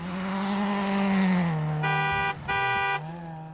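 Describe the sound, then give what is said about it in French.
A fast car on a highway roars past, its pitch sliding downward, followed by two loud, sustained horn honks separated by a brief gap. “Mais l'animal le plus rapide est le guépard, qui peut courir à 120 km par heure presque comme une voiture sur l'autoroute.”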